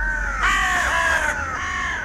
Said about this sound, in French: Alors déjà, moi, les oiseaux qui me foutent les boules de l'hiver, c'est les corneilles. Il y en a plein à Bruxelles.